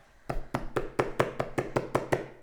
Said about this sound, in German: Dieser kriegt den Teig nicht raus. Du klopfst drauf da mal erst.